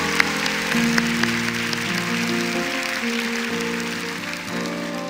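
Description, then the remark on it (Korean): An audience applauds steadily for several seconds as applause of glory offered to the Lord, a dense, even patter of many hands, while sustained keyboard or organ chords shift underneath. “십자가에 달려 죽으시고 부활하심으로 마귀를 결박하시고 우리를 자유케 하신 그 주님께 영광의 박수를 올려드리겠습니다.”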